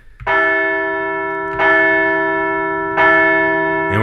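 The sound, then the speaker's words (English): A large bell rings loudly three times at an even, unhurried pace, each strike sharp and bright, with its rich tone ringing on between strikes. No voices are heard. “Yeah, let's uh, let's uh, ring that bell again.”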